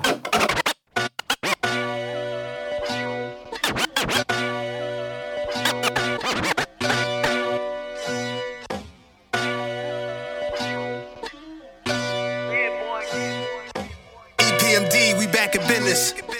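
A hip-hop track plays loud and up front, with a deep bass line, punchy rhythmic drums and sharp turntable scratches cutting in between the beats; no one speaks over it.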